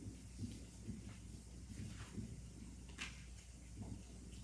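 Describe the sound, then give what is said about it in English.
Soft papery rustles as pages of scripture are turned to find First Corinthians, a handful of quick flips spaced irregularly over a few seconds, quiet, with a low background hum and no talking. “Those you who listen radio, the pages turning.”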